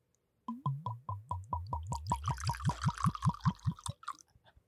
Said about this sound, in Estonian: see esimene heli, kui sa valad eh, viskist välja, see on väga püha heli me saame kõik kuulata. kuulame ka. ASMR.